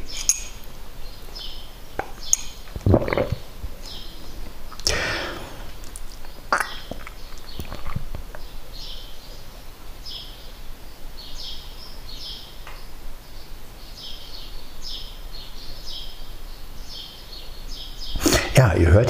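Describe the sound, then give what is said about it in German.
Birds chirp repeatedly in the background outdoors, a steady series of short, high calls spread across the scene, with occasional sharp clinks and soft rustling. “Man hört wirklich nichts, ne? außer die Vögel.”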